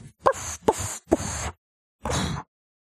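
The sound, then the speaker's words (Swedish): A person imitates the noises a female puppy makes while sleeping: three short snuffling, breathy bursts in quick succession, a pause, then one longer soft huffing sound, moderately loud. “Hon gör ju ljud för sig ibland när hon sover. Jo. Jätteroligt men... faktiskt. Ja, hon lät igår kväll också så här.”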